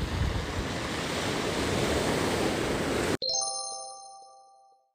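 Steady roar of rough sea waves breaking against rounded pebbles and washing in for about three seconds, then cut off abruptly by a bright bell-like chime that rings out and slowly fades.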